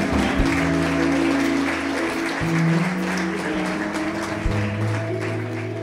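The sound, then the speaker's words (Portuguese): Steady, dense applause from a church audience applauding God in worship, loud and continuous for several seconds, with sustained low organ or keyboard tones humming underneath and shifting pitch a couple of times. “Aplauda ao Senhor, louve ao Senhor em nome de Jesus.”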